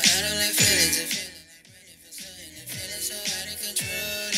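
A song plays with a steady rhythmic beat, layered harmonic instruments and bright upper tones, fairly loud and uninterrupted, with a brief softer dip midway before the full mix returns.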